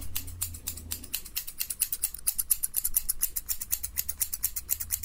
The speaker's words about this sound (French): Bon, maintenant, un petit coup de ciseau par-ci. Un petit coup de ciseau par-là.